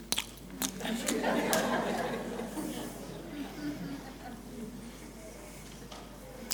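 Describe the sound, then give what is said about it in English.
Loud chewing with crunchy bites and wet, smacking mouth noises, repeating steadily for several seconds, with faint murmuring voices in the background. “Noisy eaters?”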